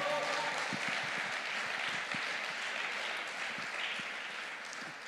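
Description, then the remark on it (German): Steady applause from a crowd giving Jesus a round of applause fills the whole stretch, a dense wash of many hands clapping at once, fairly loud, with a few faint voices mixed underneath. “Jetzt geben wir Jesus einen Applaus.”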